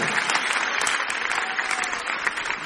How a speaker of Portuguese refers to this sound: Você pode aplaudir o Senhor pela sua igreja? Aplaudir mais forte, gente.